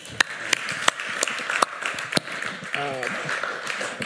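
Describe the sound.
An audience of students applauds, a steady wash of clapping with a few sharp, prominent claps standing out, and a voice briefly calls out partway through.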